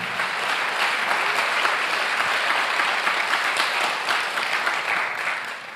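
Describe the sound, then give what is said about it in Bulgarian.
Sustained audience applause given as an offering to God during a sermon, a dense crackle of many hands clapping steadily for several seconds at a strong, even loudness, tapering slightly at the end, with no voices over it. “О, ако вярваш в това, защо не дадеш на Бога едно мощно дарение на ръкопляска.”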